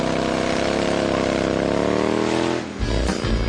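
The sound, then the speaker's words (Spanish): A motorcycle engine revs loudly, its pitch climbing steadily before cutting off briefly and then roaring back with a deep, rumbling burst. “Si tienes una moto, con esta noticia rodarás cualquier cuesta, incluso la de enero.”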